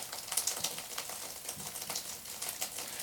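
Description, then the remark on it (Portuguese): Steady rain falling, a dense crackling patter of drops with scattered sharper taps, fairly soft and continuous throughout, with no voices. “Estão a ouvir a chuva?”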